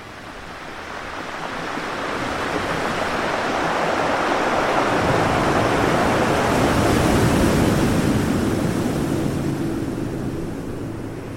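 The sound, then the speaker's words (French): Atlantic Ocean waves roll in and break, a broad continuous roar of surf that swells and recedes with a soft windy hiss, loud with no voices. “ce qui me fait du bien, c'est le son de la mer, notamment celui de l'océan, l'océan Atlantique, avec la barre qui revient et ce bruit euh, qui se répète”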